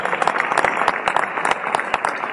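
An audience claps steadily, a dense rush of many hands with sharp individual claps popping out of the texture, sustained and fairly loud for the whole stretch with no voices.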